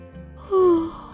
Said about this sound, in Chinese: 哇！我打了一个哈欠，上床睡觉休息。